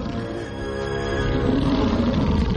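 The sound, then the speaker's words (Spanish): An enormous saber-toothed tiger roars loudly, a deep sustained growling roar that swells over a couple of seconds with no voices present. “El enorme tigre sable está tras ellos.”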